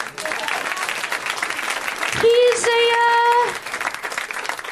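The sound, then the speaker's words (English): An audience breaks into steady, dense applause that carries on for several seconds, with a loud, high-pitched whoop rising over the clapping midway through. “A round of applause for this gentleman.”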